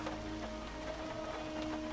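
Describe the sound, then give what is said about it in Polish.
Steady rain falls continuously outdoors while a strong wind rumbles underneath, forming an unbroken wash of noise with no voices, heard at a moderate, even level throughout. “Na dworze padał deszcz i wiał silny wiatr.”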